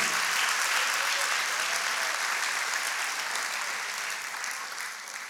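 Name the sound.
audience applauding loudly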